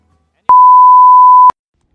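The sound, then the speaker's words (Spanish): A single steady electronic beep at a mid-high pitch, lasting about one second, clear, like an answering machine tone, with silence before and after. “Estamos en casa, pero no disponibles ahora para poder atenderte, por lo cual vas a tener que hablar con nuestro contestador.”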